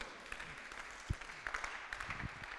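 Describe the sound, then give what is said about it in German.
Scattered applause from an audience at a church service at the Connect-Kirche, a dense patter of many hands clapping at a steady moderate level with a few sharper individual claps standing out, no voices over it. “Ja, ruhig aus, Applaus.”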